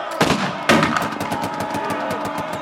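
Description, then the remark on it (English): Gunfire sound effect representing the firing between the advancing White Leaguers and Old Pete's (General Longstreet's) men in New Orleans: two sharp, loud shots ring out, then a rapid, steady volley of repeated bursts keeps going, dense, with no voices. “Sources conflict on whether the advancing White Leaguers or Old Pete's men fire first.”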